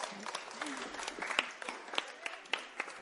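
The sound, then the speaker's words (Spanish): An audience applauds with a dense, steady patter of many hands clapping, moderately loud and sustained for a few seconds, with faint voices mixed in. “Un aplauso, por favor.”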